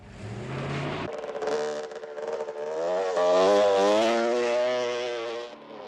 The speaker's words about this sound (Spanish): ahora el sonido de la moto en la película, a ver si distinguimos en la escena, ¿vale? Este sonido de tráfico y tal.